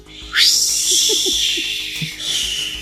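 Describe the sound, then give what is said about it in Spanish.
A dial-up modem connecting: a rising electronic whistle gives way to a loud, sustained screechy hiss with warbling tones underneath, briefly breaking off before the static rushes back in. “Los que crecimos con una conexión que tenía ruidos raros para conectar”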